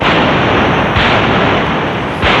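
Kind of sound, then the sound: sound effect, cannon salute shots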